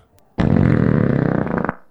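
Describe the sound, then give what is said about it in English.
A loud fart lasting over a second, a rough buzzing rasp with rapid flutter that trails off at the end; no one speaks. “That's that's not a burp. It's that's uh, belch at all. It's a belch, but from the southern from the other mouth hemisphere.”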